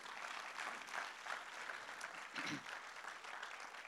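A church audience applauds God steadily, a dense, continuous wash of many hands clapping at an even level for the whole stretch, with a brief low thump partway through and no one speaking.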